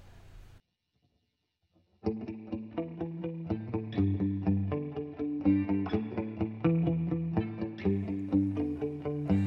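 After a short murmur and a moment of silence, a band launches into a cover song: loud, driving rhythmic chords with a distorted, effects-laden guitar tone over a steady beat, no voices.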